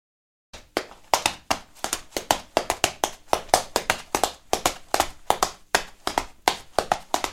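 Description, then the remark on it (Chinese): Tap dancers dance on a hard floor, their tap shoes striking it in a quick, steady stream of sharp, crisp clicks, some louder accents standing out in a lively, drum-like rhythm with no voices. “其实这是一种踢踏舞的舞者，The Tap Dancers，他们用鞋子在地板上跳舞的时候所发出的声音哦，听起来是不是很像在打鼓一样呢？”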